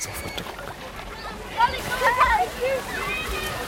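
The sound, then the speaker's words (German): Water sloshes and splashes steadily at a swimming pool as something falls in and someone jumps into the water, while children run back and forth, shouting and calling out in high voices, with the shrieks swelling loudly toward the middle over a busy background wash. “Oh, ich höre Plätschern im Hintergrund. Kinder laufen hin und her, lautes Geschrei. Etwas fällt ins Wasser, jemand springt ins Wasser.”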